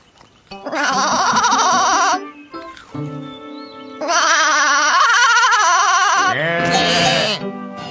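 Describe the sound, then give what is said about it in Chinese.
A goat bleats loudly several times in a row, each call long, wavering and nasal with a shaky vibrato, separated by brief pauses, with no talking. “哦，当然，你说的对，山羊先生，我得去问他们。”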